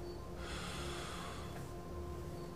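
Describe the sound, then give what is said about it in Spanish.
A single slow, deep breath drawn in steadily and held long, airy, with a soft rushing texture and no talking. “Uno respira y ya, pero dicen los que saben que nuestra respiración debería ser así.”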